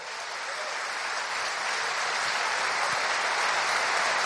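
Sustained audience applause for a performer who gave a monologue, a dense wash of many hands clapping that builds slightly in loudness and holds steady throughout, with no voices standing out.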